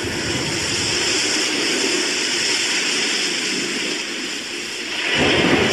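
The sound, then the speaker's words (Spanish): Loud, continuous roar of a storm at sea on the Caribbean, with heavy rushing wind and deep rumbling of violent waves under overcast clouds, shaking a schooner, steady throughout and surging louder near the end. No voices. “Nubes encapotadas, viento fuerte y un oleaje violento sacudían a la goleta.”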